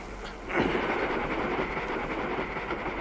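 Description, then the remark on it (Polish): A train accelerates along the tracks with a steady rumble and faint rhythmic clatter, swelling louder after a brief quieter start and holding strong throughout, with no voices. “Aha, pociąg przyspiesza, ten drzwi otwiera.”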